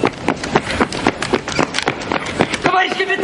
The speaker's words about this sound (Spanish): Un soldado llega corriendo al orfanato.